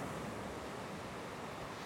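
ocean waves

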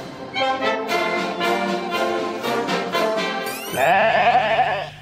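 sheep bleating

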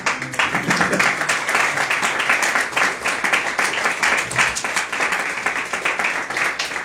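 audience clapping hands

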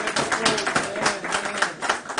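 applause

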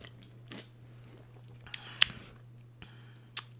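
sipping beer

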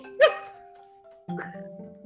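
dog barking

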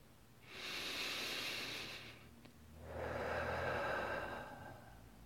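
deep breath

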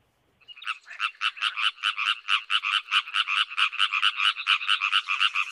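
frogs croaking

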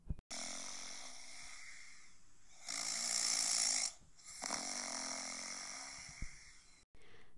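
loud snoring

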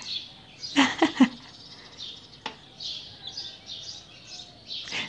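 small birds singing outdoors

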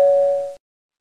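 doorbell ringing

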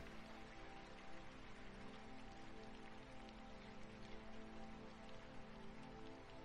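rain falling

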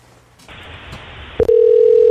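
telephone line tone

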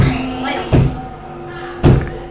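locked door being tried

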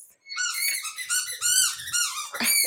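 dog squeaking

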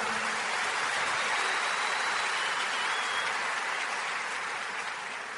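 applause

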